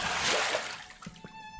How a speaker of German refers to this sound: Ich drehe den Wasserhahn auf und splash mir so ein bisschen Wasser ins Gesicht.